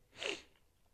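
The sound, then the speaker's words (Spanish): A single short, sharp sneeze from a person with allergies, a quick breathy blast that fades almost at once, leaving quiet behind. “Discúlpeme que ando con alergia.”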